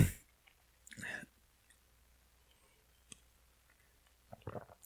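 A small sip of a drink: a short wet slurp, followed by faint mouth clicks and a quiet swallow, then a breathy exhale at the end. No talking.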